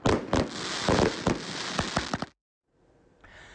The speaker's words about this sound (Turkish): Iğdır'daki destek sırasında yapılan havai fişekli gösteriye kimse anlam veremedi.